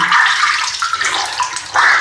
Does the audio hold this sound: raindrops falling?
no